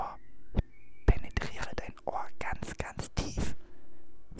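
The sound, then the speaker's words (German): Close-miked ASMR whispering, breathy and airy, with crisp sibilant bursts and soft mouth sounds, steady over a few seconds right against the microphone. “Das Mikrofon ist ganz nah, ganz nah an meinem Mund. Und jetzt flüstere ich dir quasi ins”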